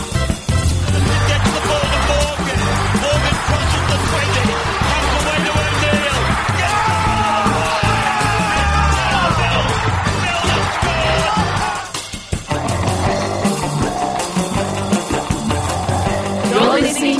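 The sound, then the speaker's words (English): A large crowd screams and cheers loudly and without a break, with overlapping shouts and whoops, then dips briefly before the roar picks up again. “Australia screaming from one side to the other.”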